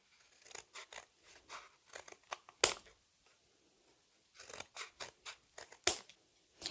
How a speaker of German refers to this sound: Als nächstes nehme ich jetzt eine etwas größere Schere und schneide mir einfach Streifen.